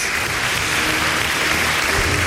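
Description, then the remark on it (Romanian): Steady applause from a crowd, a dense, even wash of clapping at a consistent loud level for a couple of seconds with no voices above it, given for the team of the Morning Glory show. “Puteți să ne aplaudați un pic Că Dăm ca de obicei primii pe țară, al doilea pe județ.”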